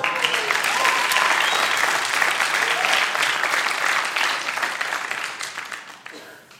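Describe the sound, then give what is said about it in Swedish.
An audience bursts into sustained applause, a dense wash of many hands clapping at steady volume for several seconds before gradually thinning and fading out at the end. “Ge honom en applåd.”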